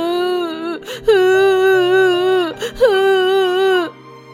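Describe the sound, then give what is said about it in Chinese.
A child wails loudly in long, drawn-out cries, three sustained sobbing howls with brief catching breaths between them, the pitch wavering and sliding at the end of each cry. “又一个嗷嗷大哭的核弹头也冲上了台”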